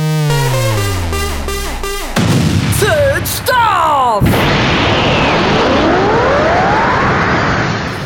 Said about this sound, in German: Ich habe endlich wieder meinen Jingle gehört.